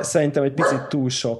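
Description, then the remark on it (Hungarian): A dog barks several times in short bursts while a person keeps talking over the barking. “Szerintem, bocsánat, itt közben kutya a kutya helyzet.”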